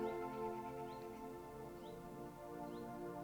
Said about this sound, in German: Du befindest dich in den Bergen. Um dich herum siehst du viel Grün und du stehst inmitten einer Kräuterwiese siehst vielleicht das ein oder andere Blümchen und hörst die Bienen und Vögel.